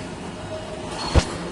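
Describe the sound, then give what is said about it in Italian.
A tram rumbles past with a steady low mechanical roar, and a sharp clunk rings out near the end as it rolls over the rails; no one speaks. “c'è un tram che passa”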